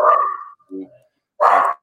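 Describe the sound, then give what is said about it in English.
A dog barks three times in short, uneven bursts: a long yelp, a softer, lower woof, then a loud, sharp bark, with quiet gaps between the barks. “Even your dog”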